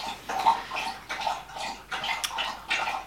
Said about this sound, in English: Sorry, the dog's just having a, um, a drink of water. We'll give it, we'll give it a minute.